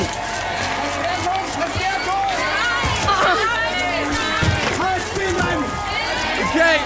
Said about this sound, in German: Und wir haben immer neue Polizeiketten, die sich formieren. Und jetzt rennen wir auf eine zu. Let's go!